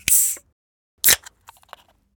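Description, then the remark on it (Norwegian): A soda can is cracked open by pulling the small metal ring tab on top: a sharp hissing burst, then another crisp pop with a rush of fizz, followed by a few faint metallic clicks. “Det her er ei brus som åpnes.”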